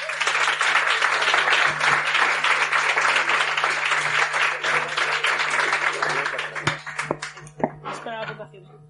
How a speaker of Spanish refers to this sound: Fuerte aplauso.